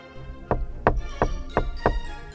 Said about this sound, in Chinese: 墙壁的那边也立刻传来轻敲五下的声音。